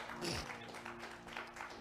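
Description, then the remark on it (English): A church audience applauds a couple's wedding together, a steady wash of many hands clapping at once, fairly soft, with a faint voice or two mixed into the crowd noise. “Can you give a hand clap for that?”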